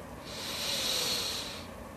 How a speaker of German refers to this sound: Wir nehmen zusammen einen tiefen Atemzug und atmen ein.